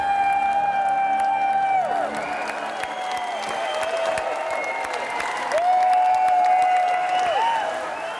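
A dancing crowd claps along in steady rhythm to loud Schlager music, the sharp claps layered over a sustained, high melody line, with some cheering mixed in throughout.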